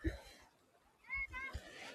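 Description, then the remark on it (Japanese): Children's voices call out briefly outdoors at the sea, with light splashing and a soft, steady background wash. The sounds are fairly faint. “あとは、今こうやって海に来て遊んでおります。”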